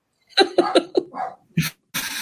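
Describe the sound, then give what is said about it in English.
A dog named Max barks in a quick run of four sharp, yappy barks, followed by a couple of rougher, breathy bursts. No one speaks. “be quiet in the background. Bark”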